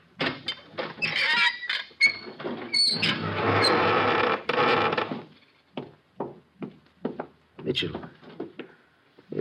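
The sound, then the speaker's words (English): A secret wooden door leading into the sheik's room creaks and scrapes open over several seconds, with a squeak midway and a loud, rough rustle; afterward, quiet voices speak briefly. “This door takes us right into the sheik's room.”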